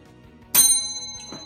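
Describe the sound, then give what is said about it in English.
A single bright strike of a bell in an office rings out sharply, its clear metallic tone lingering and slowly fading over a quiet low hum, with a faint second tap near the end. “Yeah, I got, I got the, bell. the, bell. back finally.”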